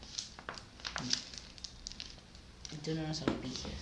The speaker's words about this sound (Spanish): hay que hacer una pausa para servir agua, pues, porque no, le saqué el sticker.